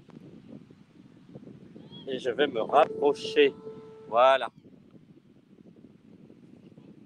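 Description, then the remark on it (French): Steady low rumbling of wind buffeting a microphone runs through the whole recording, with a man speaking briefly and more loudly in the middle to be heard over the blustery noise. “Je vais parler plus fort, voilà, par rapport au, au vent.”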